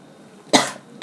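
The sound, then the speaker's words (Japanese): A sharp cough bursts out with a short tail, followed a moment later by a second, briefer cough. No one is talking, just quiet background around the coughs. “あ大丈夫ですあもうねこれ一発撮りなんで全然途中で咳してもらったりしても全然大丈夫はいあじゃあちょっとせっかくなんでお水を飲んでいただいて”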